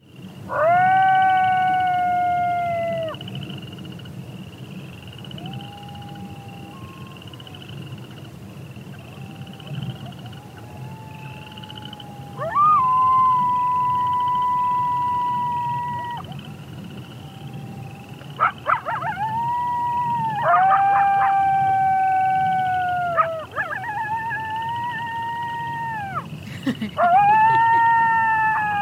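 A pack of coyotes erupts in a group yip-howl: several wavering, high-pitched wails and sharp yips overlapping in a frenzied chorus that rises and falls for about half a minute, with no talking.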